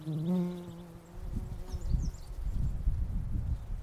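A bee buzzes close by for about a second, a steady droning hum that wavers slightly in pitch, then gives way to soft rustling and low, uneven outdoor noise.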